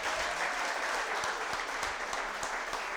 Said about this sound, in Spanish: Y dale un aplauso al que vive y reina, si así lo crees y lo sientes.